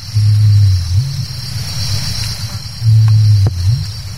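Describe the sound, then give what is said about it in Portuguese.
A greater rhea gives two deep, low booming breeding calls, each about a second long with a slight upward swoop at the end, separated by a short pause over a faint background hiss. “A ema faz um barulho muito estranho e só quando está na época de reprodução.”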